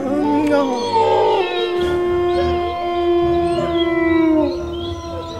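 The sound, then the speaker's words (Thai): A wolf pack howls in chorus, several long wavering cries overlapping at different pitches, with one steady howl held for seconds before sliding downward. Loud throughout, with no talking. “ว่าแล้วหมาป่าทั้งฝูงนั้น ก็ลุงกัดกินหมาเลี้ยงแกะจนหมดฝูง”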